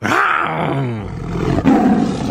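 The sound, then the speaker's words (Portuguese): A man's voice imitates a tiger's roar: one loud, throaty, drawn-out growl lasting about two seconds, with a rough surge near the end and no other talking. “Como é que faz um tigre”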